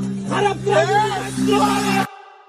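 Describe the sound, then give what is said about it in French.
In a video from Kazakhstan, several desperate men around a man lying on the ground shout in loud, strained voices over one another. Their cries rise and overlap for about two seconds before the video cuts off abruptly, with a low steady hum underneath. “La vidéo s'arrête, au milieu des cris de ces hommes désespérés de ne savoir quoi faire.”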